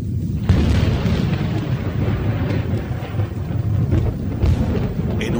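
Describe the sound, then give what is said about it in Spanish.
Loud, continuous thunder of a terrible night storm over an open field rumbles, deep and rolling, with sharper cracks swelling up through a steady roar that sounds like heavy storm rain. No voices are heard. “descampado sin más techo que una espantosa tormenta,”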